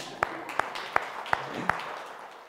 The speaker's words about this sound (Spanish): Primero que nada, un aplauso, por favor.